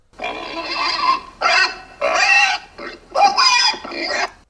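A pig oinks and grunts in four loud bursts, each harsh and slightly squealing, separated by brief pauses, with no voices present.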